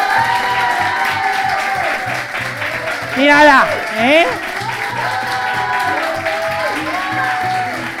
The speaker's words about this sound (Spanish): Un fuerte aplauso, ahora sí.